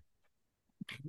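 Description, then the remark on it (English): A single sharp sneeze near the end: a short intake followed by a bright, hissy burst and a brief low trailing sound, modest in loudness, with no talking. “Bless you.”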